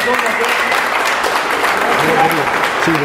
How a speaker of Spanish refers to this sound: Bueno, vamos a bautizarla en el rito maradoniano, así que pido un fuerte aplauso para la familia